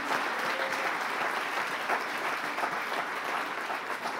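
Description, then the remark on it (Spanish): A church audience applauds the Lord steadily, a dense wash of many hands clapping at an even loudness for several seconds, with a faint murmur of voices mixed in. “Si le va a dar el aplauso al Señor, déselo bien, déselo bien.”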